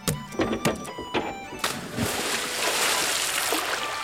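A few sharp thuds and splashes as a heavy stone lion is thrown into a pot of hot oil, then a steady, loud crackling hiss of the oil spitting and sputtering that carries on to the end.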